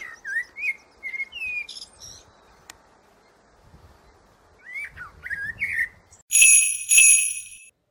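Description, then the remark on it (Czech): Bursts of quick sparrow chirps, fairly loud, with a pause between two flurries, followed by a couple of bright, sustained tinkling tones at the end. “Už je čas. Vím, vím, vím, vím, povídá Vrabec.”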